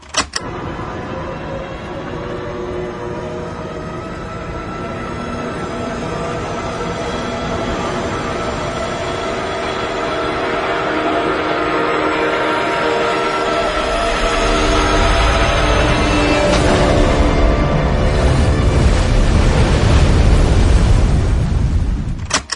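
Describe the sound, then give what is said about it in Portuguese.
In a film scene, a falling airplane comes down near the listener without passing the camera. Its engine roar and rushing wind swell steadily for several seconds, then give way to a heavy, booming crash into water with deep, sustained rumbling; no voices. “Olha, olha só a primeira cena do avião caindo perto da gente, mas sem passar perto da câmera.”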